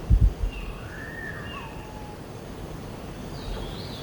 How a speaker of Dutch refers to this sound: Ik ga even dit vogeltje laten horen.